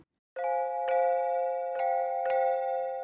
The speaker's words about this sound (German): Die Klänge dieser Glocken haben für uns mit Glocken eigentlich nichts zu tun. Das ist eher Geräusch statt Musik.